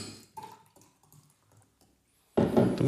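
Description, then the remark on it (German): Linzer beer glugs into a glass: a few soft clinks and trickles, then a sudden loud, frothy gush of pouring liquid fills the last half second. No one speaks. “schenken wir mal ein. Dir schenke ich ein, weil du hast nämlich, ja. du hast nicht mehr recht viel.”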